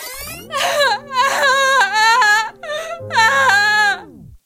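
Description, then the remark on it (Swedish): A recording of the speaker's own voice crying and sobbing in drawn-out, wavering wails, loud, breaking into several long bursts over a steady low sustained tone. “Eh, playback till ja. mitt gråt.”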